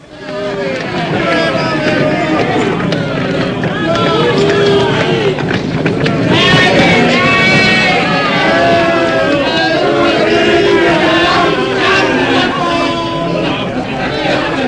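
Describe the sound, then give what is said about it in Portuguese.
A loud, dense crowd of people shouts and yells deafeningly as a prisoner is flogged before them. Many voices overlap in an unbroken roar that swells slightly partway through and never lets up. “Jesus é açoitado impiedosamente ao som dos berros ensurdecedores do povo”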